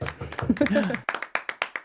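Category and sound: human body sound, hands clapping applause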